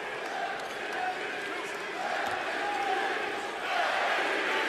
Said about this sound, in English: Crowd chanting MVP. Why not?